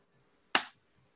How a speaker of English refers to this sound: I'm going to do a loud clap so I can see on the thing.